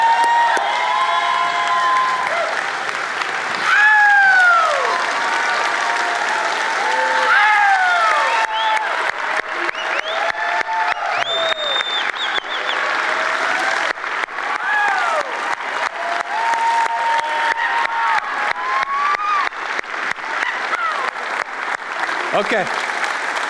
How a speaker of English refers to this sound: I want you to stand up and I want you to cheer for me